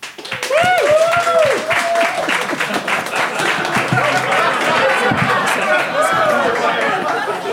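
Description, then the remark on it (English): A live audience in Phoenix applauds to vote on a debate, steady, loud applause lasting several seconds, dense clapping with a few whoops and voices rising above it near the start. “So if you think Josh and Ben, and therefore Jamie, is in the right, I'd like you to applaud now.”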